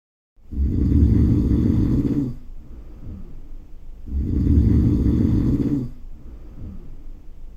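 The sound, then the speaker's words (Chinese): Loud, heavy snoring of the big bad wolf from Little Red Riding Hood, asleep in Grandma's bed: two long, rough, rumbling snores, each followed by a softer, wheezy breath out, with no talking. “大野狼的打呼声实在太大，被刚好经过的猎人听到。”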